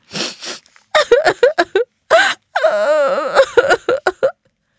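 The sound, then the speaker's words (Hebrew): A voice imitating a hurt boy crying upstairs, echoing in a stairwell: breathy sniffling sobs, then choppy whimpers building into a long, wavering wail, fairly loud, with no other talking. “אבל אליהו בקושי שם לב, כי הוא ממהר לבדוק מי זה בוכה ומיילל שם למעלה.”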